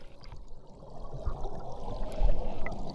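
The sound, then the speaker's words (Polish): Water of the Oder river flows steadily at kilometre 98 in Kędzierzyn-Koźle, Poland, a continuous rushing wash that swells slightly toward the end, with a few soft low thumps and no voices. “On mówi, że w tym miejscu wszystko się zaczęło. No dobra, sprawdźmy. 98 km Odry.”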